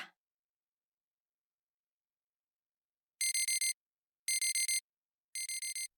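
A smartphone wake-up alarm at 8:30 starts after a few seconds of silence, sounding three bursts of rapid four-note electronic beeps, bright and insistent, with short gaps between them and no voices.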